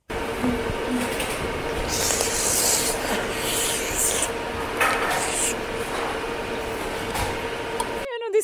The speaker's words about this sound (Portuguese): O que, o que, mas o que foi isto? Que barulho foi este? Ela está a sorver o azeite.